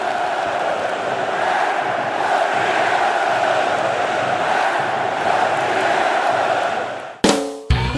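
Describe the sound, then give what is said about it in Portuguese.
A huge stadium crowd roars and chants as Atlético Mineiro players and fans celebrate winning the 2021 Brazilian title after the match against Bahia at Arena Fonte Nova in Salvador, a dense sustained wall of voices cheering and shouting without pause, cut off abruptly near the end by a brief burst of a different sound. “O Clube Atlético Mineiro comemora, jogadores se abraçam, aos gritos de é campeão!”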